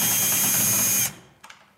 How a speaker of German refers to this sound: Genau, also wir müssen das jetzt hier einfach aufschrauben. Das ist total spannend. Ah. Ganz normale Bohrmaschine, womit man auch schön regalfest macht. Genau.